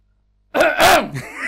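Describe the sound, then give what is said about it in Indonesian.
A short voiced throat clearing, an "ahem" with a rising then falling pitch and a breathy, rasping burst in the middle. It lasts about a second, is fairly loud, and stands alone without talk. “Kenapa waktu kayak kayak Lo dehem kan kados niku.”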